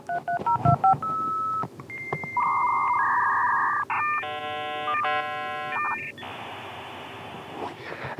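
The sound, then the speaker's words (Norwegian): A dial-up modem connects, the sound of the internet in 1994: quick DTMF dialing tones, then a sequence of steady electronic beeps and warbling handshake tones, ending in a dense hissing screech that continues loudly. “det er altså lyden av internett anno 1994.”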